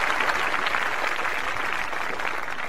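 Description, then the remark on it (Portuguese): Steady applause from a show audience welcoming a guest as the curtains open, a dense wash of clapping that holds at an even, fairly loud level throughout with no pauses or voices standing out. “Palmas, Capovila, palmas.”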